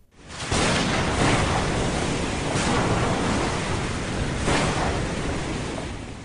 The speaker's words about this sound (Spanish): y a partir de aquí los vientos seguirán siendo favorables, pero el día 13 de febrero, una terrible tormenta amenazó con hacerles naufragar.